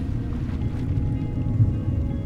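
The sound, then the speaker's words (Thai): Storm wind mixed with churning water in a cave, a steady, deep rumbling roar that fills the space with low, surging turbulence and no pauses, with no voices present. “คุณได้ยินเสียงคลื่นใต้ทะเล เสียงของคลื่นใต้ทะเลที่คุณได้ยิน จริงๆแล้วมันคือเสียงลมของพายุที่กำลังพัดผ่าน ผสมกับเสียงน้ำที่อยู่ในถ้ำและก็เสียงวิญญาณที่เดินวนอยู่รอบๆ”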